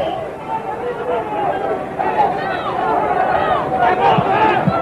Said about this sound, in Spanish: Gritos ensordecedores.